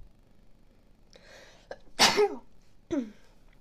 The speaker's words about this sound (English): I'm going to sneeze